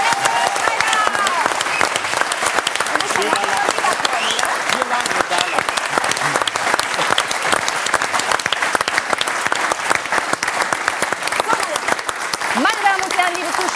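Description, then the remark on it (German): Loud, sustained applause from a German show audience as a guest comes up onto the stage to sing: a dense, crackling wash of many hands clapping at once, holding steady throughout, with a few voices or cheers faintly mixed in. “Ein großer Applaus!”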